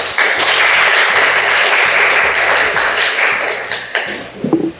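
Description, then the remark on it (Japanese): An audience claps steadily for several seconds to welcome two third-year high school students to a talk session, a dense, continuous patter of applause that holds its level before thinning out slightly at the end, with no talking over it. “じゃあ、ちょっと皆さん拍手でお迎えください。”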